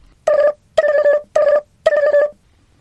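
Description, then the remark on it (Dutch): A telephone rings in four quick, evenly spaced bursts, each a loud, buzzing trill with a bright metallic tone, then falls silent. No one speaks. “Ik heb al heel vaak gebeld.”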